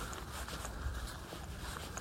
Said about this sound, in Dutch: En ondertussen lopen we weer over een pad met allemaal kleine steentjes. Ja. dus we lopen eigenlijk weer in die bedding van de Maas.